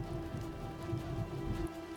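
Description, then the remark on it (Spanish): Steady rain patters down on a vehicle being driven, in a dense, continuous wash with a low rumbling undertone that drops away abruptly near the end as the rain suddenly stops. No voices are heard. “De súbito, la lluvia cesa y llega tranquilo a su casa”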